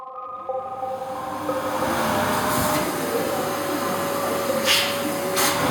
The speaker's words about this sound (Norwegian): Gjemt mellom sprekkene i det gamle tregulvet har støvsugeren klart å fange opp svarte hår.